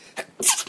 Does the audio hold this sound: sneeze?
yes